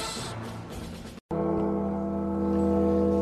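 A single deep bell tolls loudly, its rich, layered ringing sustained and slowly decaying, after a brief stretch of murky music that cuts off just before the strike. It is the bell intro of a rock song, heard when the Raiders are about to take the field.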